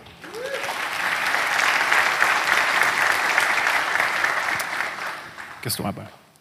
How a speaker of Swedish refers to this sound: Ge honom en stor applåd.